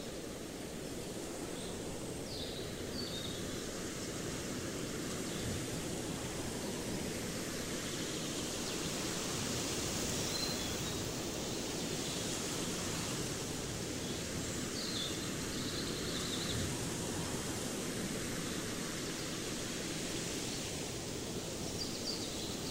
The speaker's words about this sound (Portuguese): Foi justamente a pouca luminosidade de algumas de suas áreas, acentuada pela névoa frequente, que deu ao local o nome de Floresta Negra. Fechamos os olhos e ficamos escutando o som do vento e o canto sutil dos pássaros.